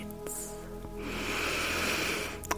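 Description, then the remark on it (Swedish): A long, deep breath drawn in through the nose, a steady airy hiss lasting over a second, followed by a brief pause with no talking. “Mm, du kan börja med att andas in ordentligt.”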